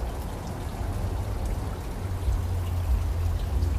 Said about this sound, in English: This wonderful waterfall that I bet you if you had a little gumball, it's cool. It goes down in a spiral.